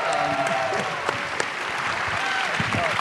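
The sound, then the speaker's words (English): Steady applause from an audience at a film screening fills the whole stretch, dense and continuous clapping with a few faint voices and whistles mixed in, moderately loud. “I, seriously, all these years later, it's just is something about just hearing um, you know, this kind of a great response is, is uh, it's just so much fun and, and really gratifying.”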